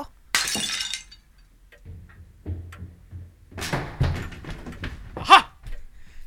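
A costly vase shatters with a loud crash, followed by scattered clinks and clatters of falling pieces and a final sharp crack, with no talking.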